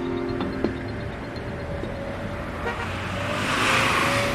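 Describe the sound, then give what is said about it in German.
Busy city street traffic in Addis Ababa, Ethiopia, with a steady engine rumble, punctuated by a couple of short car horn toots early on, while a vehicle swells louder toward the end. “Wir hören die Stadt oder genauer, wir hören Addis Abeba, die Hauptstadt Äthiopiens.”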